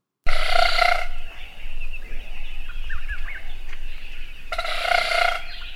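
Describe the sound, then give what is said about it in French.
Two loud, buzzy whirrs from a broadbill's wing-beat display, made by rapid wing beats of a bird living in the southern half of Africa, not by its voice, each lasting under a second and spaced a few seconds apart, with faint bird chirps and outdoor ambience in between. “Ce son est le résultat de rapides battements d'ailes d'un oiseau vivant dans la moitié sud de l'Afrique”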